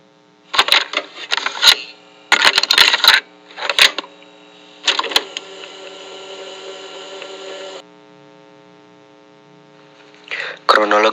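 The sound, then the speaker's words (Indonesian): Mechanical clicks and clatters from an audio recorder being switched on, followed by a steady electrical hum that drones for several seconds before a final burst of clicking. “Profesor, kalian berdua bebas berbicara setelah saya menyalakan alat perekam suara ini.”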